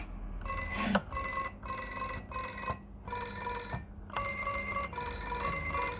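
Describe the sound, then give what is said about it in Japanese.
A toy keyboard's electronic telephone ring repeats in quick, steady bursts of bright, buzzy tones, ringing in various different sounds, fairly loud, with short gaps between rings and no one talking over it. “いろんな音で電話が鳴る変なの。”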